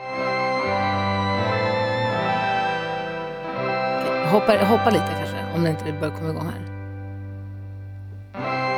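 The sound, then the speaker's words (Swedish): A newly released song plays with sustained, heavily processed synth tones over a steady low bass, busier in the middle, while a person talks over the music. “De släppte i, idag, igår, idag, nu, igår en helt ny låt som låter så här.”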